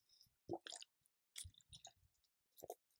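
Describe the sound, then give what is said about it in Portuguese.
Wet mouth sounds of someone sipping water: a few short slurps and swallows in quick bursts, with brief quiet gaps between them and no talking. “só um minutinho para pegar minha água aqui”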